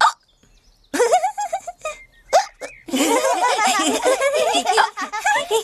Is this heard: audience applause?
no